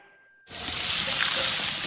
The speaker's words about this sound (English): Hear that? That's the plumpest, juiciest hot dogs you've ever seen getting their grill on.